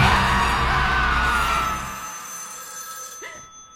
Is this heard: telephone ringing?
yes